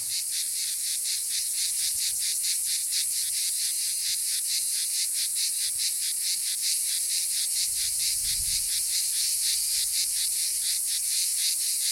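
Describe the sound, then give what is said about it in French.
A dense chorus of male cicadas (Cicada orni, Cicada traatra and Lyrissus plebeius, the most common cicadas of southern France) buzzes continuously, many insects singing together in a steady, pulsing high-pitched drone with a rapid rhythmic texture; a brief low rumble passes midway. “Cicada orni, Cicada traatra et Lyrissus plebeius c'est quasiment les cigales les plus communes du sud de la France”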